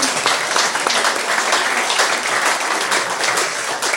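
Steady crowd applause fills the whole stretch, a dense wash of many hands clapping at once, loud with no pauses and no voices on top.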